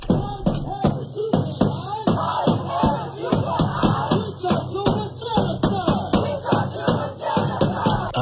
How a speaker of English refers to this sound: Oh, yeah, they're banging their drums in front of the White House now.